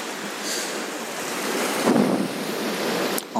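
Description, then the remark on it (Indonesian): Strong ocean waves roar and crash in a steady wash of surf, with a heavier surge swelling near the middle, wind buffeting the microphone throughout. No voices. “ombaknya kenceng banget tapi walaupun ombak kenceng kayak begini itu jadi berasa menyejukkan pikiran kita setiap derasnya ombak kegulung kesana kemari bagaikan kehidupan kita sekarang ini”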